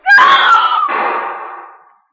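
A woman lets out a single loud, piercing scream during a phone call. It starts abruptly, holds for nearly two seconds with a slight break in the middle, then trails off, heard alone.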